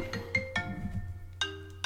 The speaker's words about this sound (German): Oh, meine Freundin ruft an. Ich glaube, die ist auch oben, gell? Die hat gerade geklingelt. Ich muss da jetzt rangehen.